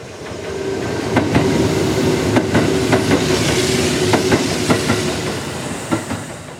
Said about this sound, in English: We could start with the sound of a train